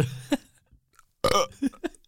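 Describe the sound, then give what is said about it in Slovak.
Two throaty burps deliberately forced by a man, each a short rumbling belch with a quick pop after it, separated by a brief pause. “Ja som, ja som robil také pičenie, že mi prišlo vtipné, že gr- grgať proste, vieš, na no, mne.”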